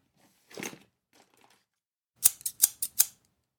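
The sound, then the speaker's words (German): Scissors snip once, then pause before a quick run of about five crisp cuts in steady rhythm, each a sharp metallic shear with no voices. “Warum nimmt der T-Rex immer eine Schere mit auf die Jagd?”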